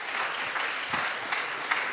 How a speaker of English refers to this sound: Give a round of applause to all our volunteers. Thank you very much.